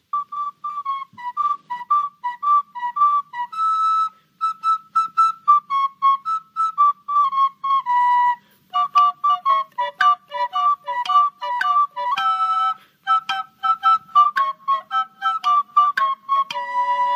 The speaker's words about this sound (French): Radio RFR qui m'a demandé euh, pour pouvoir écouter cette chanson. et eh bien, il n'y a pas de souci. Euh, voilà, voilà qui est fait, qui est bientôt fait.